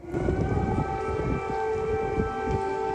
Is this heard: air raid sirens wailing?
yes